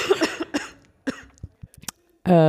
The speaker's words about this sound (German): äh, da meldet sich die äh, Krankheit nochmal. Ja, Entschuldigung, ich muss zwischendurch mal husten.